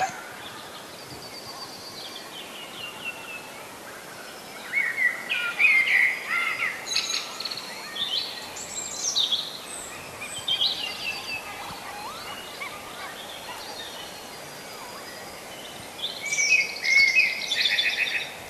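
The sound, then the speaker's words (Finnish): A blackbird sings in a dawn forest chorus, its fluting phrases rising in bursts around the middle and end, with other birds chirping steadily in the background. No voices. “Kuunnellaan vielä tätä mustarastasta ja metsän konserttia, mikä kuuluu juuri tällä hetkellä.”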